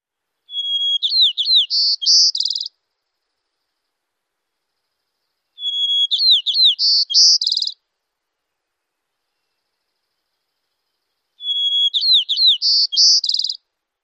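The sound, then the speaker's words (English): A white-crowned sparrow sings the same song three times, evenly spaced: a clear opening whistle followed by buzzy, rapid trills, bright against silence. “A mnemonic for the white-crowned sparrow is more, more, more cherries, peas, pink.”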